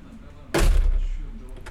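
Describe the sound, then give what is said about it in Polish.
A door is pushed shut with a single solid thud about halfway through, its heavy boom lingering briefly before fading into quiet background noise. “Zamknę.”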